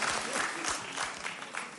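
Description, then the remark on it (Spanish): A church audience applauds steadily for a visiting friend from Mosquera, dense overlapping claps forming a broad, continuous patter at moderate loudness, with faint voices mixed in underneath. “Un aplauso para nuestro amigo de Mosquera que viene hoy, tremendo.”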